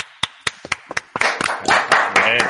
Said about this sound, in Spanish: Correcto. un aplauso.